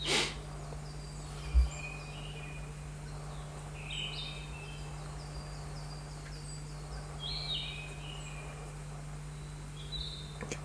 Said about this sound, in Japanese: ちなみにこの小鳥の声あの変身できる方だけでいいんですけど小鳥の声は聞こえてますかね